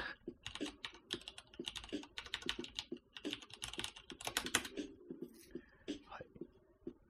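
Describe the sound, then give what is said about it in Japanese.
Rapid, irregular clicking of someone typing a search on a computer keyboard, fairly quiet, with bursts of keystrokes continuing steadily for several seconds and no one talking. “ちょっと、キーボードの位置がおかしくて”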